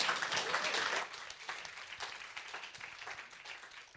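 Audience applause: a dense wash of many hands clapping, loudest for the first second, then continuing at a softer, steady level with scattered individual claps until the end.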